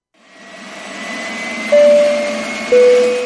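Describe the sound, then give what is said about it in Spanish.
An airplane jet engine sound effect swells up from silence into a steady, breathy rush with a high whine, jumping louder twice in sudden surges as a low tone rises. No one speaks. “Estimados pasajeros, reclinen sus asientos Quítense los zapatos y desabrochen sus cinturones, porque estamos a punto de empezar nuestro vuelo a la tierra de la imaginación.”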